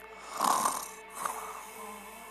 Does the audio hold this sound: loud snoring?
yes